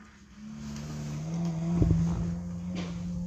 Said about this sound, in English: Yo, I was just even the sound of motherfucking cars going by.